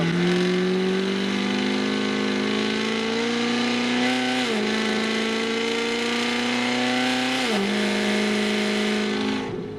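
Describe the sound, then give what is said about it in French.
The engine of the 1000tipla, a 1294 hp car, drones steadily with a harmonic hum during a parade lap at a circuit, with about 10% pedal applied. The pitch rises slowly, with two brief dips as the revs drop and climb again. Loud and continuous, with no talking. “Le 1000tipla ROULE enfin.”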